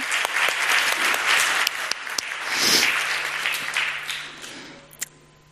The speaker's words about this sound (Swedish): Och vilken kör vi har, eller hur? Kan vi inte ge dem en applåd till? Jag tycker de är fantastiska.